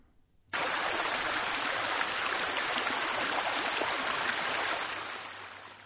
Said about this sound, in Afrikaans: Die stroom Rauri Hoek vloei van 'n stukkende pompstasie in 'n rivier in die Durbanse metro.